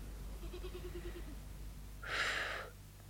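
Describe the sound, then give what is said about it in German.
Goats bleating in a field on an afternoon: a faint, thin bleat drifts in first, then a louder, raspy bleat follows a moment later, with no one talking. “Sie liegt halbschlafend im Feld, wo die Ziegen brummen und sachte die Sonne mit Hörnern stoßen.”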